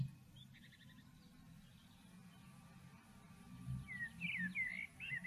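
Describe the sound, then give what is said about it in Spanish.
Birds sing softly, a brief run of high chirps early on, then a livelier burst of rising and falling twitters near the end over a low, steady outdoor rumble. “La ladera de la montaña, otros picos montañosos que se ven alrededor, árboles, escuchas los pájaros, percibís el viento y sentís el calor del sol.”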